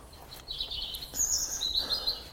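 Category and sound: bird, songbird singing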